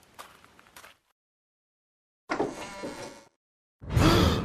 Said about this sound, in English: The Tang monk went to the door of the pagoda and opened it.